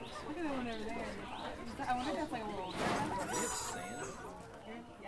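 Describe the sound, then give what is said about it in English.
Several chickens cluck and chatter, their rising and falling calls overlapping in a steady, busy stream that stays fairly loud throughout. “Chickens are wonderful because I have a food source right here that has a very low carbon footprint.”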